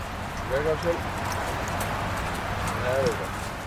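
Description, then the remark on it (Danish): A red horse trots in circles around the man working it, its hooves in a steady clip-clop rhythm over a continuous outdoor noise bed, with brief voice-like sounds rising above it now and then. “Tom arbejder nu stille og roligt en times tid med den røde hest. Den traver i cirkler omkring ham.”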